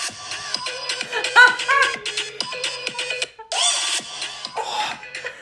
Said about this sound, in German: dieser Super Zoom mit der Melodie